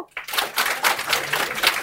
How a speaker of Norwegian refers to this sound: som tror det er løgn, kan klappe nå.